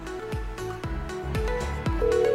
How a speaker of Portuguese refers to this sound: O telefone dele tá tocando, ele deve estar tá fazendo outras coisas lá.